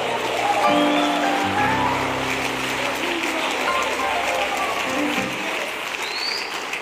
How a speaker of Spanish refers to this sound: Alguien de un aplauso a Jesús.